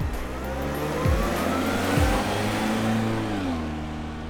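A car engine revs hard and accelerates away as FBI agents drive off with a man's car, its pitch climbing and dropping twice as the gears shift, loud with no voices.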